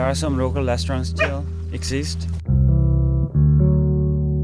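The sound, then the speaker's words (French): Several dogs at a dog meat farm in South Korea yelp, bark and whimper together for a couple of seconds, a noisy overlapping chorus, before it cuts to a steady, loud sustained tonal drone. “Dans des fermes comme ça, les chiens accouchent ici, naissent ici et restent généralement moins d'un an.”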